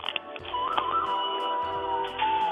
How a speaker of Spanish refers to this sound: Ajá. Ese es el tono de tu celular.